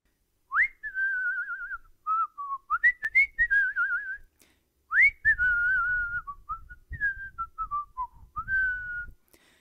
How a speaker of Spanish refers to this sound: Pero yo estaba pensando, porque yo silbo todo el día. Y sé que no encuentro que sirve mal. A ver, pégate un silbido.